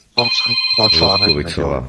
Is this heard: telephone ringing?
yes